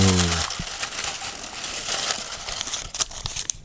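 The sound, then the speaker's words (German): Continuous rustling and crinkling of folded paper slips being stirred around in a salad bowl, with dense crackly texture and a few sharper crinkles toward the end, preceded by a brief voiced sound. “Raschel, raschel, raschel, raschel, oh. raschel.”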